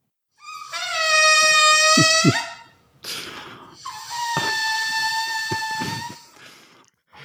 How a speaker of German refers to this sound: Ja, das ist äh, das Geräusch, das entsteht, wenn einem prall gefüllten Ballon äh, die Luft entweicht.